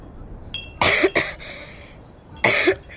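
A few harsh coughs sound close by: a pair of quick bursts near the start, then a pause and one more strong cough near the end. No one talks.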